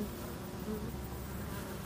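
A steady, dense hum of many honeybees buzzing together at five beehives on the south balcony of the Kulturpalast in Dresden, overlooking the Altmarkt, continuous with no pauses and no voices over the droning swarm.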